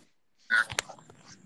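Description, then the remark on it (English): A hairbrush rasps through hair in a few quick scratchy strokes bunched together, then fades to a faint rustle, with no one speaking. Someone is brushing their hair to keep their waves in. “Gotta make sure I keep the waves right. Sorry for anybody hearing that bush.”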